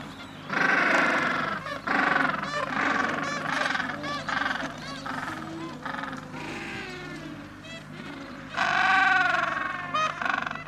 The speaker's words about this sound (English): what you're hearing now is parents, but you're also hearing the chicks. The chicks who are very hungry and they want to be fed by their parents. Uh, there's lots and lots and lots of them here and it's an amazing sight and it's amazing to hear this.